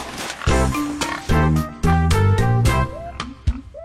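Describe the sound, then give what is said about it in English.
A pig oinks and grunts in several loud, harmonic bursts, deep and nasal, with a few higher squealing rises near the end. No one speaks. “Home again, uh oh, that pig left the pen.”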